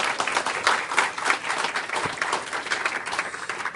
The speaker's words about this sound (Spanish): Y, esto lo aprovecho para decirles que hoy también tenemos dos personas de Nueva York que vinieron a escucharme. Y bienvenidas, qué bueno que están con nosotros. Bienvenidas. Este, ellas son, les damos un aplauso de bienvenida.